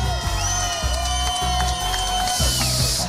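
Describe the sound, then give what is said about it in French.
A crowd cheers and shouts loudly and continuously for a contestant in a dance contest, with high whoops and screams rising over a dense roar of many voices for a few seconds. “Maintenant, pour Maëlie, je veux que tout le monde crie pour Maëlie!”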